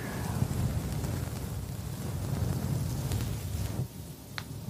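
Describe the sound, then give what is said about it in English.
Steady ASMR rubbing and brushing against a microphone as head pets, a muffled rumbling rustle that runs for several seconds without a break, with no voices. “Some nice pets here.”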